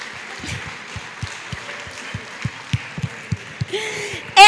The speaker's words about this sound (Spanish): Vamos a darle otro aplauso porque le va a dar calor con esta peluca.